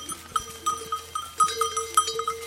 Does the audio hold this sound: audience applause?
no